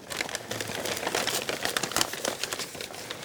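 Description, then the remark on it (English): Brown packing paper crinkles and rustles continuously as a woman takes her mother's skull from it, a dense run of crisp, irregular crackles as it is handled and unfolded, with no voices. “Karen takes her mother's skull from the brown paper and gently cradles it.”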